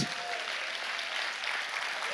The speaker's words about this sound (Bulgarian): Само вземате време от проповедта ми. Ако ръкопляскаш, прави го за Бог.